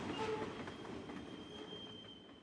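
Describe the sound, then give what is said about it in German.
A steady rumble of intercity train IC 2066 standing at platform 14 in Nürnberg before departure, with faint high metallic squeals and hums drifting over a continuous mechanical hiss, even throughout. “Nürnberg IC 2066 Gleis 14 vor der Abfahrt.”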